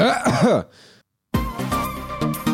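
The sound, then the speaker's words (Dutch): A voiced throat-clearing grumble with wavering pitch ends in a short, breathy cough, followed by a brief silence before a louder, sustained sound begins. “Ja, hier staat dat je moet kuchen.”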